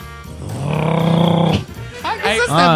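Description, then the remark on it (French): A voice imitates a car engine with a steady, buzzing, rumbling drone held for about a second, then breaks off into animated vocal sounds, fairly loud. “Fais un bruit d'auto”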